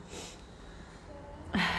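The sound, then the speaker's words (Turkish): A faint breath at first, then a sudden loud, breathy yawn near the end, with a low voiced groan beneath the rush of air. “Oya erim ben de çok esnedim.”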